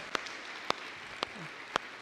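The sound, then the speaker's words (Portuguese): Congregation applause in praise of the Lord: a steady, hissing wash of clapping with four sharp, evenly spaced claps standing out in a slow, regular beat. No one speaks over it. “Se você concorda com isso, aplauda o Senhor, aleluia, aleluia, glória a Deus.”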